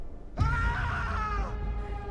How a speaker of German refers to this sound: Ein weiterer Schrei hallt durch die Nacht. Wer ist das? Ich weiß es nicht. Versuch einfach, es zu ignorieren.